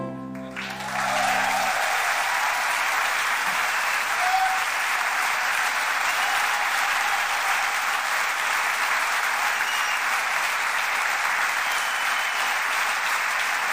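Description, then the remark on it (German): Steady audience applause for the sound engineer at the mixing desk, a dense wash of many hands clapping that swells in after a brief moment and holds at an even, loud level throughout without fading. “Und drum sollte auch statt uns der Götz hinter einem Mischpult Applaus überkommen.”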